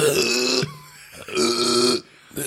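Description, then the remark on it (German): A voice imitates acid burps from heartburn in the morning: two loud, drawn-out, croaking belches separated by a short pause, with a third just beginning as the sound cuts off. “Keine Ahnung, es war, ich hatte, bin morgens aufgetan, also richtig so.”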